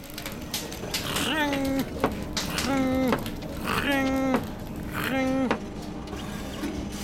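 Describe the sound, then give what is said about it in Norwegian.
An inventor's prototype machine runs steadily with a whirring, clattering mechanical noise, rising into four evenly spaced whining pulses, moderately loud, with no talking. “Ja, og du kan sikkert høre maskinen min dure og gå.”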